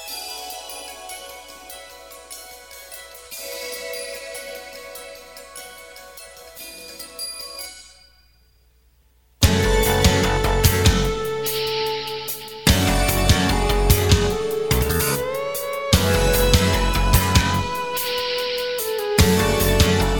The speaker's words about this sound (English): that takes us to the next … soundtrack clip, and that is …